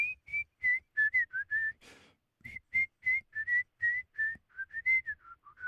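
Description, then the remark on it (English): A jazz musician whistles a jazz solo: a lively, jazzy melody in quick, separate notes with a bouncy rhythm, clear, with a brief breathy pause partway through and no talking. “He says his whistling isn't what it used to be when he was a kid, but let's be honest.”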